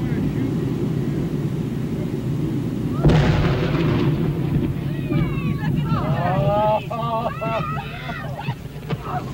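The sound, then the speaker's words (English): A single heavy explosion booms as a beached whale carcass is blasted, over a steady outdoor rumble, then a lingering roar fades under high, excited cries from spectators on the dunes as pieces of whale rain down. “the blast blasted blubber beyond all believable bounds”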